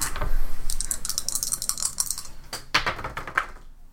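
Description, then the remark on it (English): Dice clatter on a hard surface: a rapid rattling burst of small clicks, then a few sharper knocks as they settle, with no one speaking. “All right, I'm going to use my luck. I'm going to use different dice.”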